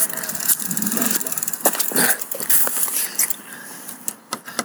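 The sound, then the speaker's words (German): A bicycle brake squeaks in a thin, high-pitched squeal over steady mechanical rattling, with scattered clicks and ticks and no voices. “Ach, jetzt quietscht was quietscht da an dem Fahrrad?”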